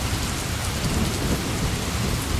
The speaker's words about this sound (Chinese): 哎，下雨了。 对啊，怎么一下子下了这么大的雨啊？